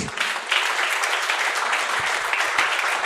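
A crowd claps steadily and densely for about three seconds, a continuous wash of overlapping handclaps at fairly even loudness with no voices standing out.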